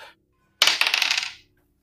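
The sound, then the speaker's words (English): Dice roll across a hard surface: a sudden bright clatter of quick rattling ticks that lasts under a second, then dies away into silence. No one speaks. The roll is for 14 points of radiant damage. “Uh, not a very good roll, but 14 points of radiant damage on that.”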